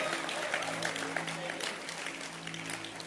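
An audience claps steadily for about three seconds, a dense, even patter of many hands with no clear individual beats, at a moderate level over a faint low hum.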